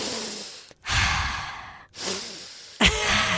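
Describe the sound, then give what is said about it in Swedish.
A voice acts out a big, exaggerated inhale, drawn out and airy, imitating a woman at Stureplan stretching her arms toward the sun and breathing in demonstratively, then follows with more long, noisy breaths in close succession, loud. “Där ställer hon sig och sträcker ut armarna mot solen. Och andas demonstrativt in”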